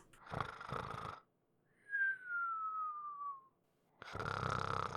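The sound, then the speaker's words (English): Snoring from a sleeping guard, heard very distantly: a rough, rasping snore, then a thin descending whistle on the exhale, then another raspy snore, with no talking. “Someone's sleeping. Yeah, he's snoring.”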